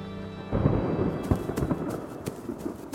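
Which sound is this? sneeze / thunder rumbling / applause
thunder rumbling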